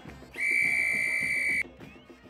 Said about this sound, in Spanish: Pero lo que nunca me voy a olvidar es del momento en que el árbitro hizo sonar el silbato final.